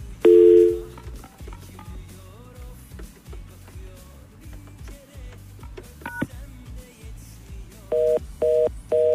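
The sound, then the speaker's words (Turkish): A phone call attempt that doesn't connect: a loud tone at the start, scattered dialing beeps, then three evenly spaced ringing tones near the end, with a low rhythmic hum underneath. “Ee, olmuyor Yavuz. Bir daha arayalım.”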